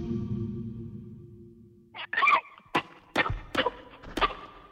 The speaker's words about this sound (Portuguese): Antes da ligação ser cortada, o sistema da polícia ainda gravou os tiros que mataram a Fabiana, o Rafael e o Gabriel.